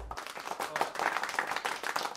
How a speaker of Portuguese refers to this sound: Gente, queria uma salva de palmas para minha interpretação.